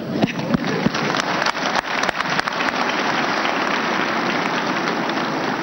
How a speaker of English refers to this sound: Clap for her.